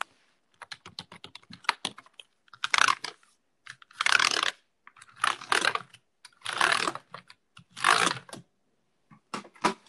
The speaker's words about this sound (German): Das ist ein bisschen Tastatur ne? Hier.